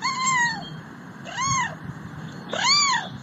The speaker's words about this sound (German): Aber als Anna einmal fragte, wie machen denn Katzen?